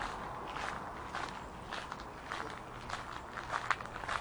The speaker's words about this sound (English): The gravel path feels slightly loose underfoot, but that's no trouble to the jogger who passes us by.